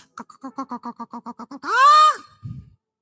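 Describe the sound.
A voice imitates chickens clucking in a farm chicken coop: a quick run of about ten short, evenly spaced clucks, then one loud drawn-out squawk that rises and falls, ending with a low grunt.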